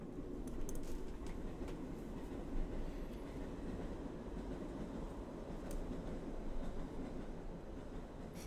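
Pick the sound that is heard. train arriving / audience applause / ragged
train arriving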